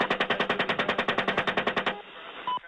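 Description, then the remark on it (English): A rapid burst of heavy automatic gunfire from two US Apache helicopters during an April 2010 airstrike in Baghdad, about twenty evenly spaced loud shots in under two seconds, then cutting off into a noisy, crackling background with a brief electronic tone. “that gunfire from those helicopters killed two Reuters journalists, both of whom were carrying cameras.”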